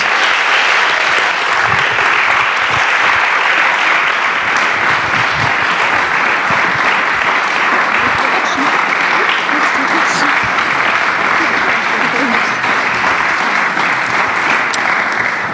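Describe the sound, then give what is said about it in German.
Sustained audience applause at an evening stage event, thanking two guests who spoke, a dense, steady wash of many hands clapping at full volume for about fifteen seconds, with a few faint voices and whoops mixed into the noise. “Vielen Dank euch beiden, einen großen Applaus.”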